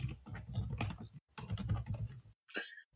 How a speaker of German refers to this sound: man hört dich tippen, aber nichts sagen.